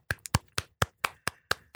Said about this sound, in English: hey, give it up. You know what? Clap it up for Bob Brown.